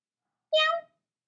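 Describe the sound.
A single short, bright meow rings out once, clear against silence, sounding like a person's voice imitating a cat rather than a real animal, addressed to the family's new cat, Chase.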